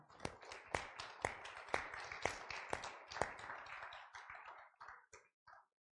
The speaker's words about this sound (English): Well, as Brother Jackie Searcy used to say, ain't God good? Give him a hand clap.